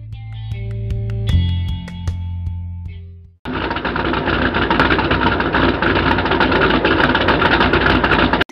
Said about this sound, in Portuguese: Um caminhão grande vermelho estacionou na frente da casa amarela que fica ao lado da escola.